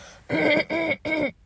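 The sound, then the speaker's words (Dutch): Three short, evenly spaced bursts of coughing or throat clearing, each rough and voiced with a raspy edge, fairly loud and with no talking around them. “Wacht, ik ga je hoesten.”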